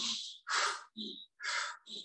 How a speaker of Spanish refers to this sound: Vivimos acelerados, vivimos todo el tiempo con respiración torácica. La respiración torácica, te invito a hacerla, es esta que hacemos con el pecho.